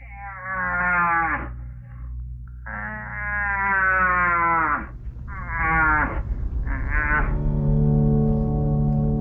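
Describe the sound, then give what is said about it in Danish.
A very large animal with huge antlers bellows four times in close succession, each call a loud, deep, drawn-out groaning roar with rich harmonics, with no talking. “Det er lyden af et meget stort dyr med et kæmpe gevir.”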